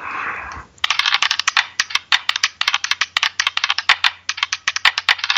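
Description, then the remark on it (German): Dice, rolled to pick a page, tumble and clatter for several seconds, a dense run of sharp clicks and rattles that bounce irregularly before stopping. No one speaks. “Wir würfeln uns eine Seite.”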